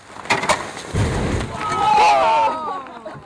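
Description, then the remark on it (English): Methane gas seeping from a lake on the Alaskan tundra, ignited by researchers from the University of Alaska Fairbanks, catches with a sudden whoosh and a low, rumbling roar, followed by people calling out in excitement as the flare dies down. “That's the sound of researchers from the University of Alaska Fairbanks igniting gas seeping from a lake on the Alaskan tundra.”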